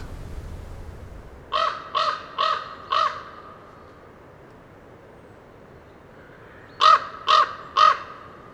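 ravens calling

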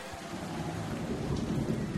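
rain

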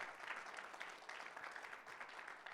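audience clapping

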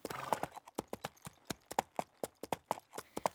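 horse hooves clip-clopping

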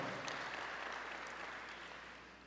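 audience applauding

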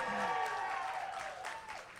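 audience applauding

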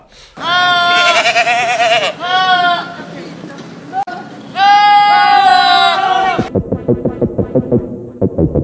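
goat bleating

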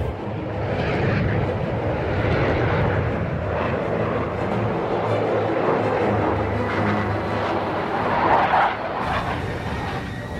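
airplane

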